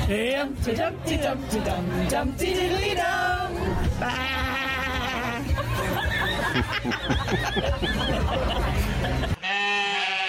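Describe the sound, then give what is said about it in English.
Voices imitate sheep bleating, with wavering, quavering bleats mixed with snickering laughter and overlapping chatter, loud throughout before a brief drop near the end. “Oh, they like doing their own sheep these days.”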